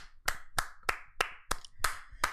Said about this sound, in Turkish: Bir alkış alabilir miyim senden? Zorla.